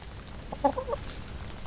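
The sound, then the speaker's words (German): A few short, soft clucks from chickens in an animal yard with rabbits and pigeons just behind a village cemetery wall, clustered in a quick burst over a steady low background hum. “Gleich hinter der Friedhofsmauer beginnt der Mesnerin ihr Tiergarten mit Stallhasen, Hühnern und Tauben.”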